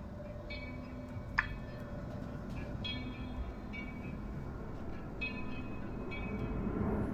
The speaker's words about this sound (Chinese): 哇，一个大飞机飞过去了，好大。对，我坐在现在的这个位置，会以平均五分钟一次的频率看到飞机飞过去，有那种比较小的，还有超级大的，特别爽。